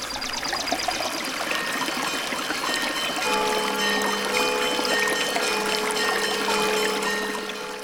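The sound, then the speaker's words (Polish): Water pours and trickles steadily from a spring beside the parish church in Stary Kornin, Podlasie, whose water locals consider healing. A continuous splashing flow with bright gurgling detail; partway through a faint steady tone joins the sound. No one speaks. “Źródło z cudowną wodą znajduje się przy świątyni parafialnej.”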